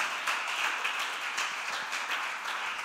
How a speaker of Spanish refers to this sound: ¿Cuántos lo creen y aplauden en esta mañana? Vamos.